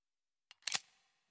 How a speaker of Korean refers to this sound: 그가 바닥에 무릎을 꿇고 앉은 자세 그대로 앞으로 몸을 기우뚱하며 무슨 지렛대 같은 것에 잔뜩 체중을 싣자 뭔가 한참 돌아가며 마찰하는 소리가 나더니 또다시 크게 찰칵하는 소리가 났다.